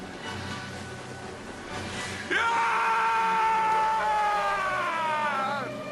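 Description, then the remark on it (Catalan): After a couple of seconds of murky background rumble, a loud, frenzied, euphoric yell bursts in, sweeps upward, holds strong for about three seconds, then breaks off with a falling tail; a whaling crew's cry on sighting the sperm whale in a Moby Dick production. “Aquest, aquest crit és d'una eufòria ja completament demencial, no?”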